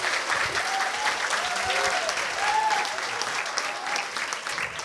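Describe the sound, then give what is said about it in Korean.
An audience claps steadily for about five seconds, a dense, even patter of many hands that eases off slightly toward the end, with a few faint voices rising through it, clapping for the youngest young man in the group. “저 우리 저 예쁜 청년한테 박수 좀 한번 쳐주세요.”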